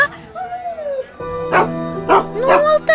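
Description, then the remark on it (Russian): A dog named Altai barks and yips a few times in short, tonal bursts while standing beside a sled, with some whiny pitch-gliding sounds between the barks. “Что такое, Алтай? Стоит возле саней и лает Что-то вкусненькое там нашел”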